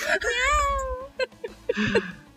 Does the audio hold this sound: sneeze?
no